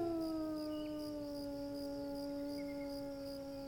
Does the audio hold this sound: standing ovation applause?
no